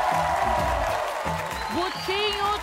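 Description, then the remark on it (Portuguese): A lively audience at a show in Brazil applauds and cheers in a steady, dense roar, with voices whooping and shouting over continuous clapping for the whole few seconds. “Minha plateia tá animadíssima, eu gostei, obrigada.”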